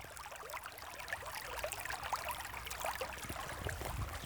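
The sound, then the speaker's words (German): Water in a stream of the Alster splashes and babbles steadily around a fairly large branch lying in the current, a continuous burble with small bright trickles and drips popping over the flow, no voices. “Der Kies ist unter meinen Schuhen und hier ist ein etwas größerer Ast im Wasser, der in der Strömung für dieses Plätschern sorgt.”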